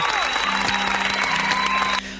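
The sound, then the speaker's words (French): A burst of applause from a crowd, dense and steady clapping that stops abruptly near the end, with a faint steady tone running through it. “Mais avant de démarrer, avant de démarrer, euh, bah, j'aimerais vous applaudir.”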